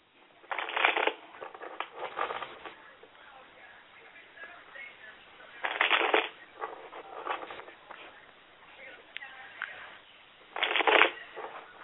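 Tarot cards being shuffled in three separate bursts, each a crisp riffling flutter lasting about a second, with quiet rustling and handling of the deck between them.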